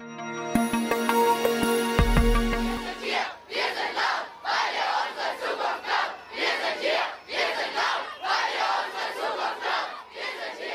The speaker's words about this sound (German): Wir hören hier einen Protest von Fridays for Future, die mit diesem Slogan ab 2018 Millionen Menschen für mehr Klimaschutz auf die Straße brachten.